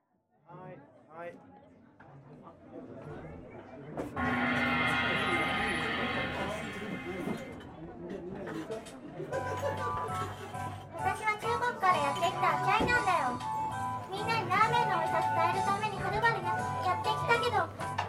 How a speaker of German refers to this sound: Ein Mann bestellt Bier in einem Nudelsuppenladen, also in einem Lamenladen, und macht Rabatz, als er keins bekommt. Danach kurze Prügelei, Ende vom Lied, der arme durstige Mann verliert.